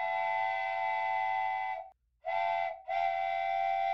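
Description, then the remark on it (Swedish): A steam train whistle on a journey from Skagway, Alaska, to the Klondike sounds in three loud, sustained blasts (a long one, a short one, then another long one) with brief silences between and no voices. “Och det gör hon med tåg och båt lite om vartannat ifrån Skagway till Klondike.”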